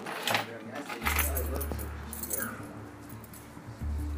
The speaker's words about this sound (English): Uh, what time is it? Let me find my keys.